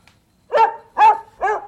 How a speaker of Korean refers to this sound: 예, 개 짖는 소리가 오늘 보물소리입니다.